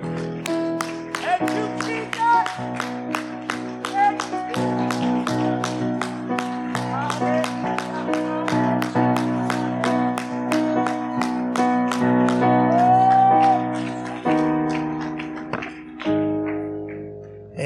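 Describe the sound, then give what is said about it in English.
A church audience claps their hands to God in a steady, even rhythm, roughly two claps per second, over loud sustained keyboard chords and singing that continue throughout. “In Jesus' name, why don't we clap our hands to him?”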